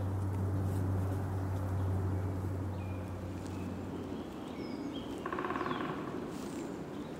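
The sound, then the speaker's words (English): Spring birdsong outdoors: scattered chirps and calls with a woodpecker's tapping over a steady low rumble and a busy background of ambient noise. No one speaks. “It sounds spring like, and that woodpecker.”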